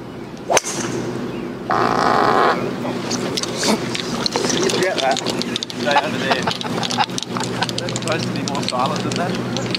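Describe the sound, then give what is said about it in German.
A short, buzzy fart rips out for under a second, loud, during a golf tee shot on the US PGA Tour, against steady outdoor background noise with voices murmuring throughout. “Und auch hier war der Darm dementsprechend.”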